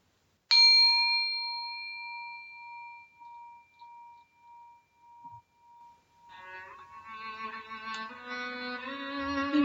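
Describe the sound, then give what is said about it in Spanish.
A single gong strike at the end of a meditation rings out with a clear metallic tone that slowly fades over several seconds, and soft sustained music swells in near the end. “Al finalizar la meditación, voy a tocar el gong y a dejar tres minutos de silencio, después de los cuales voy a volver a tocar el gong y terminar el audio.”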